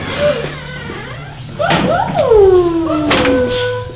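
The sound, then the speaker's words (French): A door creaks open, its hinges giving long squealing glides that rise and fall, broken by a few sharp clicks and knocks of the latch. “Oh, il y a quelqu'un. Vas-y, ouvre porte.”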